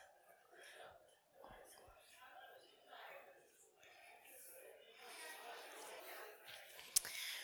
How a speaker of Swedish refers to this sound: Vad härligt det var att höra surret av prat.